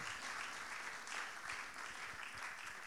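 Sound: audience clapping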